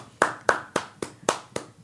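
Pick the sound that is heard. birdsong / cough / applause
applause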